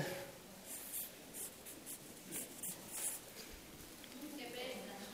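A pen scratches steadily across paper, short strokes in an irregular rhythm with brief pauses between them, fairly quiet and heard on its own.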